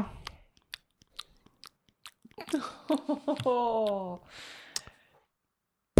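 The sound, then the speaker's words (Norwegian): Wet mouth smacks and clicks of a nurse at a reception desk chewing gum, spaced irregularly, followed by a drawn-out voiced hum or murmur and a final sharp click. “Der sitter det en sykepleier og tygger tyggis og og snakker i Eller akkurat snakka i telefonen og legger på.”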